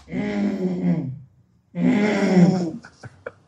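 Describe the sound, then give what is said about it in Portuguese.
A person's voice imitates a monkey growling in two rough, throaty bursts, each about a second long, separated by a short pause and followed by a few breathy clicks, fairly loud. “E aí ele começou, eu juro, parece mentira, mas eu juro, ele começou a rosnar. Ele começou a fazer um barulho que era assim, ó.”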